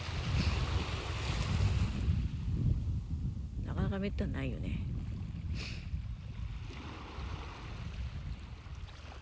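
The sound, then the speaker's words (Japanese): A steady wash of ocean surf breaking on the beach of Yamanoshita Seaside Park, recorded at the water's edge, rolls under the whole recording, loud and broad with gusts of wind buffeting the microphone, while a person speaks briefly in Japanese in the middle. “さっきと場所を変えて、まあ、もうちょっと波打ち屋の近くに来てみました”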